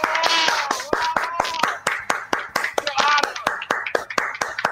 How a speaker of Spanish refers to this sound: No, no, tienes que aplaudir.